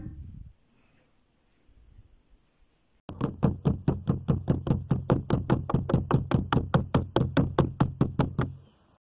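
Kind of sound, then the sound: household object, knocking on a door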